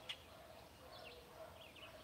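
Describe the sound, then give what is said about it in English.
A pet bird squawks in a few short, repeated calls, fairly quiet, over a steady background hiss with no one talking. “Bird, you're being loud.”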